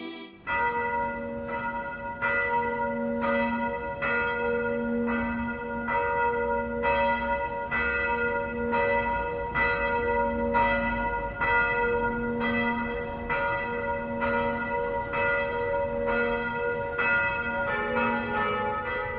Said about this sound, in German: Bayern 1 präsentiert das sonntägliche 12 Uhr läuten auf Bayern 1, Radio für Bayern.